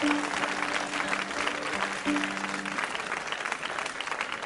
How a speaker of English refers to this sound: You're a great audience. You're definitely the best audience I've ever had. Give yourselves a round of applause, yeah.